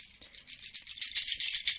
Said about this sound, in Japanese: いやー、いい音だー。ちょっと波の音に聞こえませんかねこれ。えー、これはですね、セミーヤというね、楽器なんです。これなんだろうな。あのー、何でできてるんだろう。多分ね、あ、そうそうそう、えっ、ー、とね、木の実って書いてありますね。乾燥させた木の実だそうです。